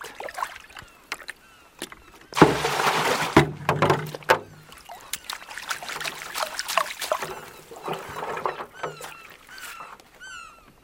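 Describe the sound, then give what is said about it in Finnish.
Water trickles and splashes irregularly, with soft drips and a louder sloshing burst midway, as if water is being stirred or poured. No one speaks. “Vähän vettä.”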